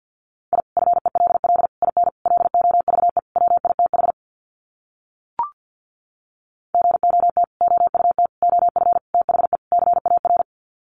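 Fast Morse code at about 50 words per minute sending sets of five words: a steady mid-pitched tone keyed in rapid, clipped bursts, two runs of groups separated by a short silence broken by a single click.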